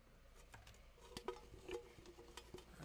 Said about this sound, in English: shuffling, I'm shuffling.